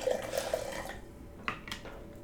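A short pour of Jim Beam whiskey from a handle-size bottle splashes into a glass for about a second, followed by a few faint drips and light clinks of glass, quiet, with no talking.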